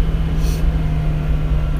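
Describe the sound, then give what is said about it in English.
A car engine drones steadily at a constant pitch, its transmission stuck in low gear while the car is still cold: a loud, unbroken low hum with a strong buzzing tone and no change in revs, with no voices. “So right now, I'm stuck in high gear. Uh, sorry, low gear. Stuck in low gear.”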